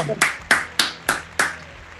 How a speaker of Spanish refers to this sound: Un aplauso